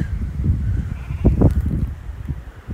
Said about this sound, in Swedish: Shit. Det är får här. Hörde nyss ett får.